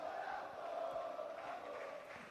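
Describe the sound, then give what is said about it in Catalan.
Espanyol football supporters, about 200 of them, chant together at the Estadi de la Ceràmica during a match against Villarreal, a steady sustained roar of many voices with a droning tonal quality, loud and continuous throughout without a break. “Sí, perquè a més estem situats relativament a prop dels aficionats de l'Espanyol, dels que fan més soroll, i són 200, però sembla que en siguin 500”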